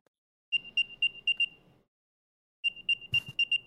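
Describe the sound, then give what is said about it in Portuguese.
An AirTag tracker plays its beep sound: two bursts of bright, high-pitched electronic chirps, each a rapid series of short beeps, separated by a brief pause. A soft low rumble runs beneath, and a sharp knock interrupts the second burst. “Da onde sai som aqui? Deve ah, lugar, não... não faço ideia, mas sai som.”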